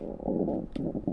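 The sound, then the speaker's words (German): A fairly loud stomach rumble: a low, bubbly gurgle that churns for about a second with a brief squelch partway through, heard alone with no talking. “Das war mein Magen.”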